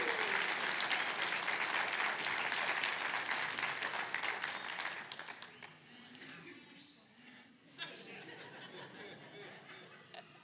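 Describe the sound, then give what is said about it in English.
An audience claps loudly for a group of kids in a dense, steady wash of applause that gradually thins out after about five seconds, leaving scattered claps and light murmuring, with a brief burst of chatter near the end. “Let, yeah, let's give it up for our kids.”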